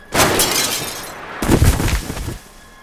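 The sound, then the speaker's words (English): A car windshield shatters in a loud, harsh crash as a passenger without a seatbelt goes through it, followed by a second burst of breaking glass and crunching debris that rattles on for about a second before cutting off. “He went through the windshield.”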